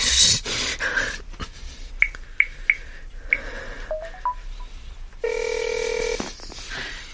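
A phone being dialed: a series of short, sharp keypad tones, then a steady electronic ringing tone that holds for about a second. No voices.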